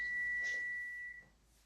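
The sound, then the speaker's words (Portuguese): A stove's high-pitched electronic beep sounds as one steady tone for just over a second, then cuts off, leaving quiet room noise. No one speaks. “Ó, tem algum apito aí.”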